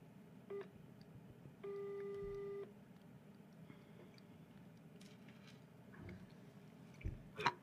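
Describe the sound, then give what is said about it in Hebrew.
Mobile phone dialing tones on speakerphone: a brief beep, then a steady electronic tone lasting about a second, over a quiet background hum with a few soft clicks afterward. “אנחנו מעלים אותך בנייד. רגע. בוא נראה. נעשה אותך ספיקר.”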